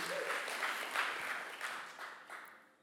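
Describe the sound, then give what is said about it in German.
Audience applause given to thank a musician for his accompaniment: a dense wash of many hands clapping at once, steady and fairly loud before tapering off at the end, with no voices over it. “Genau, wir können André einen großen Applaus geben.”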